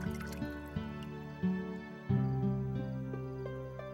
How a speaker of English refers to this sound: And so Jesus himself, their Lord and teacher, went around the table with a large bowl of water. He washed everyone's feet until they were all clean.